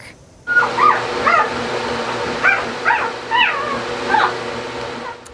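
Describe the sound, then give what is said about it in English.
A newborn purebred St. Bernard puppy, the last of a litter of seven born on Saturday in the community of Armstrong, whimpers and yips in a string of about six thin, high-pitched squeals, fairly loud, over a steady low background hum with no talking. “Patrick's Day, but a new puppy in the community of Armstrong is still making his mark.”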